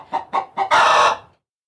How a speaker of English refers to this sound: the hen flapped her wings and clucked loudly in excitement.